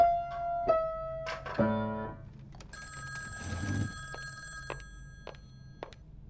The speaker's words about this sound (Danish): Så ringer telefonen.